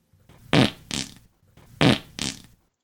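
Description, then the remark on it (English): Two pairs of loud, buzzy fart noises, each pair a stronger burst followed by a shorter one, repeated in a quick rhythm with a low rumbling underneath and no talking. “No fart sounder there.”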